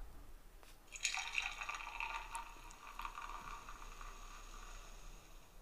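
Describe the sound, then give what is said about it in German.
A beer pouring sound effect from a phone app: a fizzy, gurgling pour with bright hissing foam that starts suddenly, then settles into a steady fizzing for several seconds, with no talking. “auch wenn ich jetzt gerade kein Bier neben mir trinke, ich mache einfach mal, einfach damit wir es mal auf dem Ton haben jetzt, als würde ich mir jetzt ein Bier einschenken in dieser App.”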